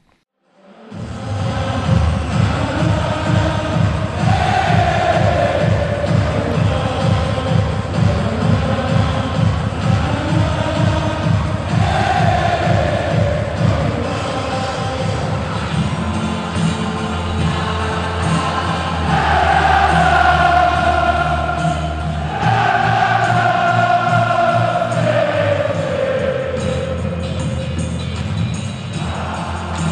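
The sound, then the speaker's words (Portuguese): Football fans cheering en masse in a stadium, pushing their team to avoid relegation: a loud, unbroken roar of massed voices with rhythmic drum-like pulsing early on, the chanting swelling and rising in waves through the second half. “os torcedores estão indo em massa no estádio, empurrando o time para ele não cair”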